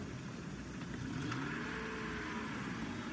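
A car engine hums steadily, then revs up as the driver sets off and pulls away with a rising whine that holds for the rest of the short clip. No one speaks.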